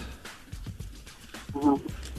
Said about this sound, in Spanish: Y escuché el saludo de esos gallos. Me persiguen por todos lados, todavía.